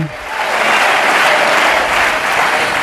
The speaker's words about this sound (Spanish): aquí en el Hotel Beatriz de la capital, por cierto, abarrotado de la intervención de Feijóo, que a primera hora, cuando comenzaba este acto, hacía su aparición dándose un baño de masas y al ritmo de aplausos y vítores de presidente.